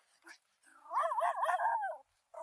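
A dog whimpers in a long, wavering, high-pitched whine, with short sharp yelps just before and after it, moderately loud, while the man holding it is ordered to put it down.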